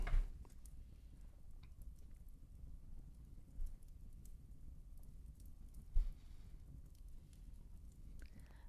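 A fireplace crackles quietly, with sparse irregular pops and snaps scattered over a low, steady rumble, a few louder cracks standing out near the start and middle. No one speaks.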